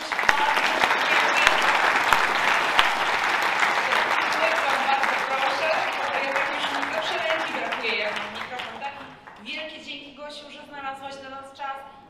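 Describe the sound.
An audience applauds steadily and loudly for about eight seconds; the clapping then thins out and fades as someone begins speaking over the last few claps.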